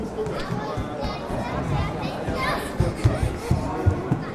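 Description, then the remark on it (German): Children play tag and run about inside an echoing church, with a steady murmur of voices, scattered footsteps and a few sharp knocks and thuds toward the end. “Ein paar Kinder spielen Fangen im Kirchenraum.”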